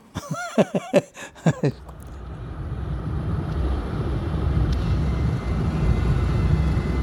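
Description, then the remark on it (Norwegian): A few short vocal fragments at the start give way to a steady, rumbling airplane engine drone that holds and slowly swells, heavy, as if heard from inside the aircraft on route 239 in flight over Begnadalen, Eggemoen and Tyrifjorden in Norway, nearing Drammen. “Bråtens rute 239 flyr over Begnadalen, Eggemoen og Tyrifjorden.”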